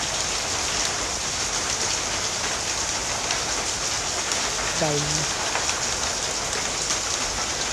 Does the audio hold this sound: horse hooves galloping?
no